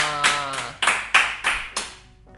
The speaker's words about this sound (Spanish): Muy, muy bien coordinado ese aplauso.